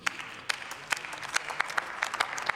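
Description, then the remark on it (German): Applause in a parliamentary chamber: many hands clapping in a dense, steady patter with sharper individual claps standing out, moderately loud and with no voices. “Applaus”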